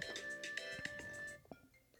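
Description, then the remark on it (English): A phone ringtone for an incoming call plays an electronic, tonal melody with a steady pulsing beep for about a second and a half, then cuts off, leaving a few faint clicks. “Oh, we got a call.”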